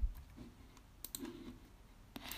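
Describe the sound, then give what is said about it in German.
A few sharp clicks of a laptop keyboard or trackpad, made while playing a video game on the laptop, scatter irregularly over a quiet background, some in quick pairs, with a low hum underneath and no speech. “Falls man das Klicken hört, ja, ich spiele auf dem PC gerade, also eigentlich Laptop”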